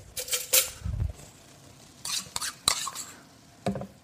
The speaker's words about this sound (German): Jetzt bereite ich das Tomatenmark vor. Das wird auch nicht mitgeröstet mit dem Hackfleisch, sondern ich spritze das jetzt hier oder ich packe das einfach in so einen Messbecher rein und verrühre das ganz schlicht mit Wasser.